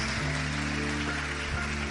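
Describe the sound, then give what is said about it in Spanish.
An audience applauding for the King, to the glory of God: dense, steady clapping fills the whole two seconds at an even loudness, with sustained low musical tones holding underneath and no voices. “Dale el aplauso al Rey.”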